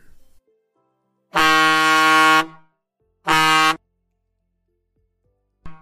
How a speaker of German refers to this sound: Die Taube, sie fliegt bis zur Sonne. Und sie drückt mit ihrem Schnabel gegen die Sonne. Und da erscheint ein lautes Tuten.